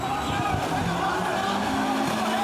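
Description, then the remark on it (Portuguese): A blue car's engine roars at high revs with squealing tires as it reverses at high speed into a group of football fans during a fight between rival Vitória and Bahia supporters near the Manuel Barradas stadium in Salvador, then flees; loud throughout, with voices faintly in the background. “Em marcha ré e em alta velocidade, o motorista do carro azul avança contra um grupo de torcedores e foge em seguida.”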